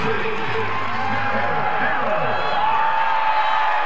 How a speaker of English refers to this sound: Awesome, awesome moment. You can hear the crowd. Everybody understands what's happening right now. This is Pretty cool moment.